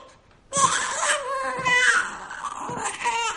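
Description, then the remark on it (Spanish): An infant wails continuously after a brief quiet start, a loud, high-pitched cry with strained harmonic tones that rises and falls without a pause for about three seconds. “¿Eso que oigo es un niño llorando?”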